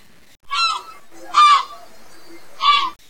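A seagull calls out three times: loud, harsh, nasal squawks spaced about a second apart, with near silence between each cry.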